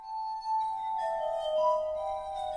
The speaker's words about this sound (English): Gentlemen, says the captain, I submit to your authority, but in the interim, while you're only taking a dram, I shall dispatch my tune. In the meantime, he flourishes a prelude on the glasses.